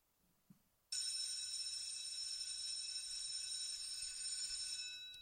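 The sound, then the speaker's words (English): A bell starts abruptly after a brief knock and rings continuously in a bright, high-pitched, steady tone for over four seconds, loud and unbroken, with no talking. “the longest bell of my life. That bell was 20 minutes long.”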